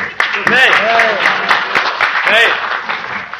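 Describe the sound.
A crowd applauds steadily throughout, a dense, loud patter of many clapping hands, with voices calling out and whooping over the applause at a couple of moments.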